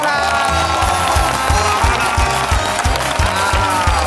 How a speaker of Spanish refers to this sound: Amigos, hoy vuelve Hollywood al hormiguero porque nos acompaña una actriz de éxito mundial que empezó su carrera en España. Un aplauso para Ana de Arma.